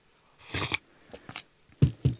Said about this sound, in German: Warte, ich trinke kurz einen Schluck Tee.